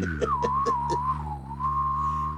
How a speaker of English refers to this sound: And it's literally just ooh while you're whistling. Right. Right? Remember? Right. Yes. Oh, I, I used to do that and I'd be like, and I do it now and I freak out dogs and they're like, what?